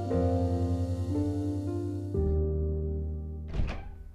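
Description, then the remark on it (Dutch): A steady low electrical hum shifts pitch midway, then a single solid, muffled thunk lands near the end as a refrigerator door swings shut after breakfast and lunch are taken out, at half past six in the morning. “Ik pak even snel mijn ontbijt en lunch uit de koelkast voordat ik de auto instap.”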